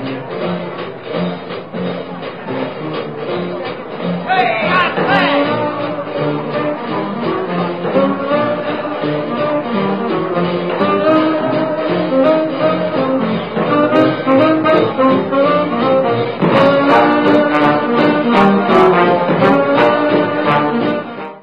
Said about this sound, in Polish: a przez chwilę posłuchamy jeszcze muzyki.